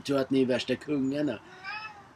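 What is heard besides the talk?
cat meowing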